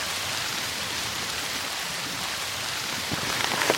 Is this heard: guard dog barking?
no